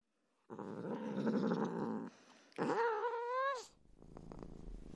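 A kitten clinging to a person's thigh purrs with a loud, rough, machine-like rumble, breaks into a short drawn-out meowing cry, then settles back into a quieter, steady purr.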